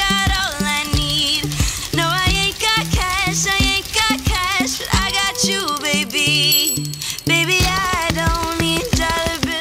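A pop song cover recorded by Kurt Hugo Schneider, played on bicycle parts (bell, brake cables, spokes, tires, frame): steady, loud rhythm of clicks and ratcheting taps, with twangy pitched tones carrying a melody and a female singer's voice over the beat.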